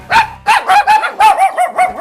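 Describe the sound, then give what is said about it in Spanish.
A dog barks rapidly and repeatedly, about eight sharp barks in quick succession, loud and clear with no talking. “Espera, que te lo traduzco. Tu perro te dice que quiere Lenda”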